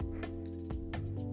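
A steady, high-pitched cricket trill runs unbroken through the quiet scene at 4:42 in the morning as the sun is just starting to rise, faint, over a low continuous hum with a few soft knocks.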